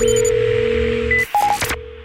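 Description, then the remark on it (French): A steady electronic telephone tone holds for over a second as a call is transferred to an automated order line, then a quick burst of beeping dial tones and a short high tone follow, clear with no talking. “Ben, je vais vous transférer à l'ordinateur.”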